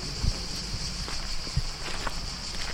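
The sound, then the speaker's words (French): A steady, shrill buzzing of cicadas drones continuously outdoors on the grounds of a technology park, with a few soft low thumps like footsteps passing. “Petit tour du propriétaire au milieu des cigales.”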